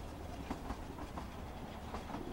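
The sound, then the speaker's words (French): A third-class carriage of the Trans-Siberian train rattles along the rails: a steady low rumble with periodic metallic clacks breaking through, and no voices. “je suis dans le transsibérien”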